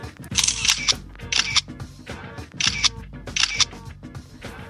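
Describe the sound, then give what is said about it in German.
Camera shutters click again and again in quick bursts, with bright mechanical snaps repeating in a steady rhythm over a low background murmur, as teachers and students take photos on a photo rally at the Almsee, an alpine lake, on a November day. “Lehrerinnen und Lehrer und Schülerinnen und Schüler tummelten sich auf der Jagd nach den besten Fotomotiven am wunderschönen Alpinsee.”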